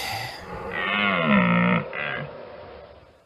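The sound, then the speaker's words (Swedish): A fallow deer groans twice: a long, deep, throaty bellow followed by a shorter grunt, loud, with no voices around it. “Det är en dovhjort som du kör på.”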